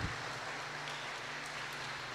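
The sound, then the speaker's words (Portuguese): A church audience applauds for Jesus together, a dense, steady wash of many hands clapping at once with no single claps standing out, holding at an even loudness throughout. “Você que crê em Jesus, dar uma salva de palmas e pode tomar o seu assento.”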